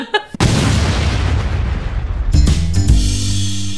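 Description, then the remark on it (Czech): A short intro jingle opens with a loud booming hit, rolls on as dense, rumbling noise, then settles into steady sustained tones near the end. No one speaks. “Tak šup, půjď znělku, teď jde o minuty.”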